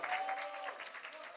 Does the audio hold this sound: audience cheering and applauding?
yes